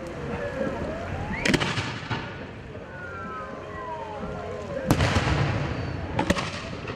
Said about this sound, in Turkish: İstanbul Boğazı'nda havai fişekler patladı, İstanbul'un çehresi aydınlandı. Büyükşehir Belediyesi 19 Mayıs'ı 21.05'te İstanbul Boğazı'nda gerçekleştirilen havai fişek gösterisiyle kutladı.